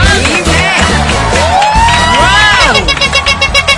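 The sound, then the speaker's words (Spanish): A loud, dense crowd claps and cheers steadily, with high whoops and shouts rising and falling over the continuous wash of applause. “Un aplauso, por favor.”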